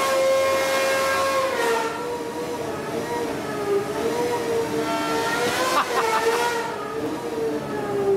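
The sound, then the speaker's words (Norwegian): A naturally aspirated car engine in a car with a manual gearbox screams at high revs in a video, loud, its piercing tone holding steady with slight wavers before a quick blip of revs near the end. “Og du dere, jeg vet jo at det fins eh, motorsykler og alt det her, men det her er en bil.”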